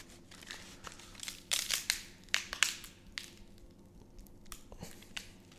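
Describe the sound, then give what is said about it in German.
A bundle of dry sticks creaks and crackles as someone strains to bend it, with irregular bursts of splintery rustling but no clean snap. “Gar nichts passiert, denn zusammen kann man diese Stöcke eigentlich quasi nicht zerbrechen.”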